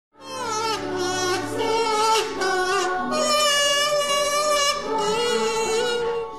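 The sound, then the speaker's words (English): A buzzy kazoo plays a wavering melody, then a penny whistle takes over, both fairly loud, sounding continuously with no pauses and no talking. “the first sound you hear is a kazoo and the second one is a penny whistle.”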